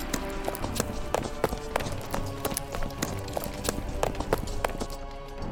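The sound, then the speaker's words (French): Quick running footsteps pound along in a steady, brisk rhythm for several seconds, each step a sharp, clear impact over a low background rumble. “Allez, Allez courez avant que la garde ne revienne”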